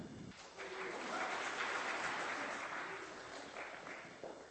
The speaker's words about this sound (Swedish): Jag har inte ens gjort någonting ännu och får redan en applåd. Det är ju bra.